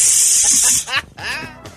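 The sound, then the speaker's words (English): A person mimics a snake with a loud, steady hiss lasting just under a second, then breaks into short voiced vocal sounds. “The snake just goes, oh, yes.”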